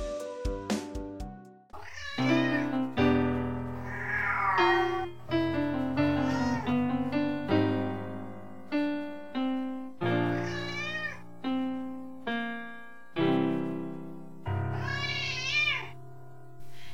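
A cat meows over and over in loud, drawn-out, insistent cries with short gaps between them, begging for food, with no talking.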